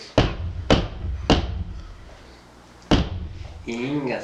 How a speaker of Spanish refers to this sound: Y se escucha el tercer toqui, toquido, toquido de puerta. Eh, tocaron la puerta, güey pero era más fuerte